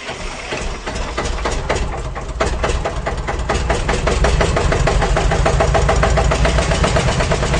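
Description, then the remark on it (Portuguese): An old car engine cranks and catches, then settles into a loud, steady idle with a rapid, slightly uneven chugging rhythm, with no voices. “o cara tinha que botar força pra embreagem e pegar”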